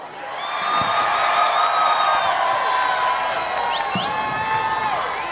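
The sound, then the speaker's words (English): A large crowd at a rally in Washington, D.C. on January 6th, in support of then President Donald Trump, cheers and roars continuously as Congressman Madison Cawthorn is welcomed, with scattered whistles and shouts rising above a dense, sustained wall of voices and some clapping. “Wow, this crowd has some fight in it.”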